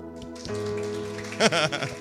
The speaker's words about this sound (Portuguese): Se você não aplaude, eu aplaudo, tá bom?